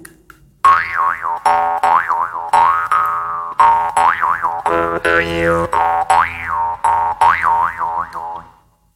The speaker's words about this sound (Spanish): Y lo voy a tocar con el trompe, un poquitito esta arpa de boca. Y suena así.